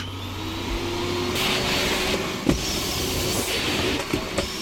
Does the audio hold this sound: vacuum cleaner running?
yes